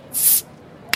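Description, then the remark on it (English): A bottle is opened with a loud, bright hiss of fizzing spray lasting about a third of a second, then quiet and one small sharp click at the very end. “Pop a bottle.”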